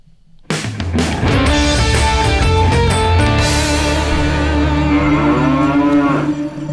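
A cow in the background lets out one long, loud, drawn-out moo that starts abruptly and holds steady for several seconds, with no talking.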